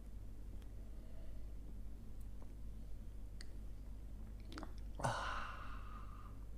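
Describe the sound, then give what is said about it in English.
A steady low hum and a few faint clicks, then near the end a single breathy slurping sip of coffee. “Fill it with your favorite liquid. I like coffee.”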